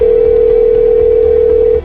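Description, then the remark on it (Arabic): A steady, unbroken telephone dial tone of a call to a mobile network company hums loudly for almost two seconds, a single sustained pitch with no voices, cutting off abruptly at the end. “بمعنى إنه ممكن يتصل بشركة الشبكة اللي أنت مشترك فيها ويقولوا لهم”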